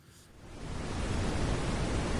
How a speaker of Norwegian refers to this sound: Det brune vannet fra Akerselva spruter opp langs murveggene på de nye fabrikkbygningene.